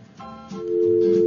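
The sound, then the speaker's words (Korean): A telephone call that was being connected on air goes dead and a steady electronic busy tone sounds, a sustained mid-pitched hum that grows louder and holds, with no one speaking. “네, 끊어졌네요.”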